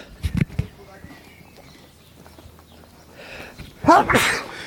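A brief vocal catch is followed by a long, quiet pause before a loud, sharp sneeze bursts out near the end, breathy and explosive.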